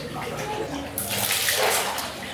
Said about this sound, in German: Wir sind jetzt hier in den Hot Springs, heiße Quellen. Hier ist eine riesengroße Badewanne mit Schwefelwasser. Soll sehr gesund sein.